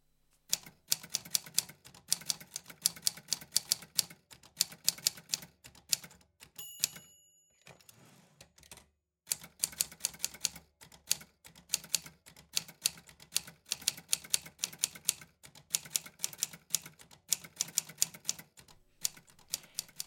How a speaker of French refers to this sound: C'était donc bien sûr la machine à écrire.